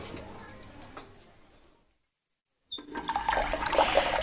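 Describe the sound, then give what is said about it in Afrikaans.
A faucet runs and water splashes into a sink, stops briefly into silence, then gushes back on louder, with splashing as someone scoops cold water with their hands to rinse their face. “spoel altyd my gesig met koue water af as ek benoud raak.”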